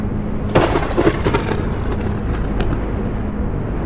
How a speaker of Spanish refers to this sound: El sonido ambiental aumenta, como si se estuviera gestando una tormenta en algún lugar.